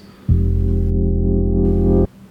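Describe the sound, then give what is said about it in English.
A single one-shot sound chopped from a longer sample: one loud, steady, buzzy note with a deep, rich tone that starts abruptly, holds for under two seconds, and cuts off cleanly, played alone with no talking. “When I got that, I then chopped it up until I remained with this one shot sound, which sounds like this”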